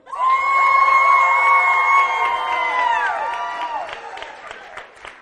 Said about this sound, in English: All right, so now it's up to you, judges. By your round of applause and noise, team number one.